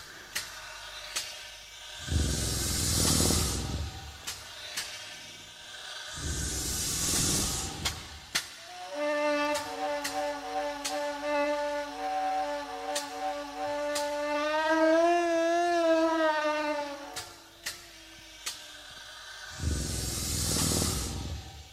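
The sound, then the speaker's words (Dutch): A reconstructed mammoth call, made with a device that recreates a mammoth's throat and nasal cavities: a long, wavering trumpet-like blare with deep rumbling beneath, framed by several loud breathy, hissing blasts. It is forceful, with no talking. “Ja, je, hoort eigenlijk twee geluiden. Het is het, het getrompetter, dat we misschien nog wel met een, met een eh, huidige olifant kunnen associëren.”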